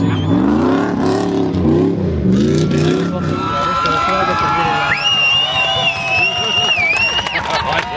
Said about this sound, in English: and my God, there's some hooning going on in that paddock.